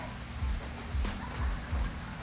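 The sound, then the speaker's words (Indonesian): Steady rain patters, a soft continuous hiss with a few low rhythmic thumps recurring about every half second, recorded on a rainy day at 11:43, close to midday; no one speaks. “hari ini sedang hujan dan saat ini direkam itu pukul 11 lewat 43 menit.”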